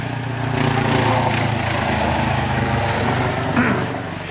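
A helicopter drones overhead, a loud, steady low throbbing with a rough engine whine that swells early on and holds before easing slightly at the end.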